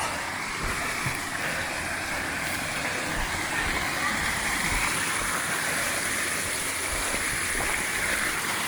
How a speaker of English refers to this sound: check out the uh, little bit of cascade here. There we go. Little mini waterfall.